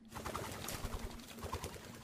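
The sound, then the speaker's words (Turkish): A white dove with a note tied to its foot coos softly amid a busy, fluttering rustle of beating wings as it takes flight toward the Great Seljuk Palace, over a steady low hum, with no voices. “Güvercin havalandı.”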